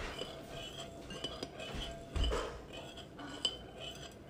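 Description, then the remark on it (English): A spoon stirs briskly in a bowl of jello mix, with a steady run of light scraping and clinking against the sides and a couple of sharper knocks. No one speaks. “Now there's something else you gotta do while I'm stirring this.”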